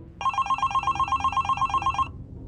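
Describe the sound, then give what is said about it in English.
A telephone rings with a rapid electronic trill, pulsing evenly for about two seconds before cutting off, clear over a low background rumble. No one speaks. The call is from the front desk. “I was starting to consider calling the front desk to ask what was going on when the phone rang.”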